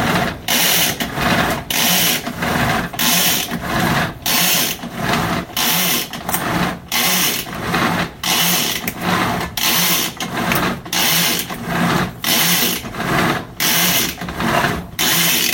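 An electric food chopper with salt in it, its motor whirring loudly and steadily, its buzzing drone broken by quick, regular dips roughly twice a second, with no voices over it.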